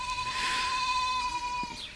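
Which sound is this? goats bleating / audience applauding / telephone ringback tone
goats bleating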